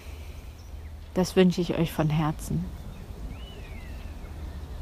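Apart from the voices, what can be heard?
birds chirping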